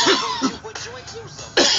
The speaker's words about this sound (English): Oh, that shit was the cough of the day, y'all.